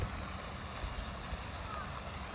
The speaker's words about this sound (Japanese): なんかすんげえ水しぶき吹いてんなすんごいとしてんな大丈夫かあれ あそうあの聞こえますか